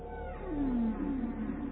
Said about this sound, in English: We, the whales, are here now to communicate with you and assist you in seeking the truth of your being.